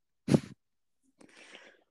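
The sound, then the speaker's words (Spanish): A domestic cat that has come up to the speaker gives a short, loud call, then after a brief pause makes a softer, breathier, noisy sound lasting about half a second. “gato Estoy sanada, por eso se acercó”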